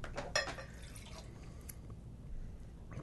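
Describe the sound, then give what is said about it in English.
Water sloshes and splashes briefly inside a drinking glass being rinsed out after a boozy drink, a quick swirl early on followed by a few faint drips and trickles against a quiet background. “Just Make sure you rinse your glass.”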